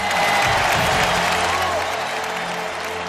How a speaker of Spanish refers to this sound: Y por favor, una ovación también para Saúl Jiménez Fortes.